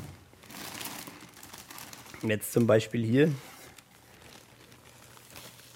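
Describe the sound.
Plastic bags holding numbered human bones rustle and crinkle in soft, irregular bursts as they are unpacked at a university desk in Bamberg, with a man speaking briefly in the middle before the crinkling continues on its own.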